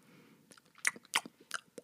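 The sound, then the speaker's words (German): Wet crunching and chewing of a dragonfly eating its prey, several sharp crisp bites at an irregular pace over a faint low murmur. “Ein Bein ist noch da, sagte die Libelle.”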